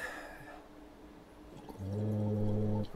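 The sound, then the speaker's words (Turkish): A person gurgles softly in the throat for a moment, then adds a steady voiced hum while still gurgling, producing a louder, buzzing, watery drone, as a diaphragm-strengthening voice exercise. “Önce birkaç fokurtu fokurdattım. Evet. Ondan sonra ses ekledim ama fokurtuyu kesmeden.”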